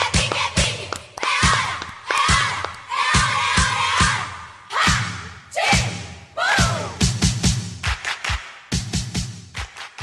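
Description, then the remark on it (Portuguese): A loud crowd cheers and shouts while heavy, rhythmic claps or thumps beat out a steady pulse, the noise swelling and dipping in waves for about ten seconds. “Uma salva de palmas.”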